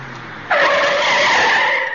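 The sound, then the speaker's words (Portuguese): A passing car brakes hard and its tires skid with a loud, sustained screech that starts abruptly after a low engine rumble and holds steady for about a second and a half. “Um rapaz que por ali passava com seu carro, ouvindo os gritos da moça, freia bruscamente.”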